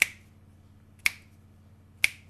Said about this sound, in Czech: Nad jezírkem je krápník, ze kterého padají kapky. V dokonalém tichu každá kapka na vodní hladině zní jako tlesknutí.